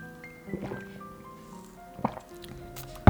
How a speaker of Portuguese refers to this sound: vou beber um bocado de água.